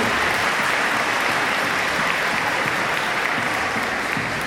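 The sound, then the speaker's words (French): Sustained audience applause for the actor Franck Pitiot, a dense, steady wash of many hands clapping at an even loudness for several seconds, with no voices standing out. “Hein, euh, On peut l'applaudir.”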